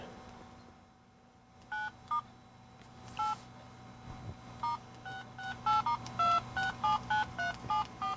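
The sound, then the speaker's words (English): A phone keypad beeps as keys are pressed while someone texts: a couple of isolated tones at first, then a quicker, uneven run of about a dozen short dual-pitched beeps over a low steady hum. “You know you can turn that those tones off.”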